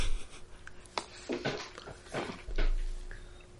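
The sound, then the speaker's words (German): A person imitates a dog barking with a few short, breathy woofs, spaced irregularly, with soft rustling and breathing between them. “Wuff, wuff.”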